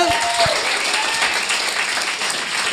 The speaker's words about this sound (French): j'aimerais ça qu'on lui donne une bonne main d'applaudissement.